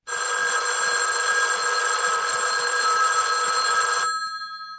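A loud telephone bell rings continuously for about four seconds, a harsh metallic jangle that stops abruptly and leaves a brief fading hum. No one speaks.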